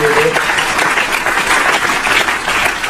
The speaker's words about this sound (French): Applaudissements de Minipod, tout le monde. On l'a peut-être euh, en son. On l'a pas en son, mais on l'a.